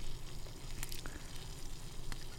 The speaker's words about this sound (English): Joe's frying walleye in the skillet.